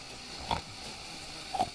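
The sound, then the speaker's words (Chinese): A voice imitates a person's snoring that sounds like a pig, making two short, nasal, inhaled grunting snorts about a second apart, each a brief rough burst against a quiet background. “就是那种吸，然后会有那种猪叫声这样”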